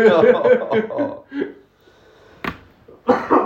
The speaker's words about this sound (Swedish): post-corona här och sitter och ja, hostar.